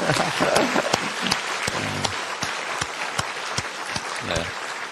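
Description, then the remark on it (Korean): A church audience breaks into steady applause for a couple as the husband embraces his wife publicly, a dense wash of many hands clapping that holds throughout, with a few sharper individual claps and some faint voices mixed in underneath. “아, 우리 박수 한번, 우리.”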